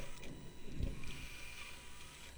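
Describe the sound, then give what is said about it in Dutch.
A small line-following robot, switched on and set down, whirs and clicks steadily, with faint ratcheting mechanical chatter and a low rumbling thump at one point, no voices present. “Nou ja, we zetten hem aan en dan zetten we hem neer.”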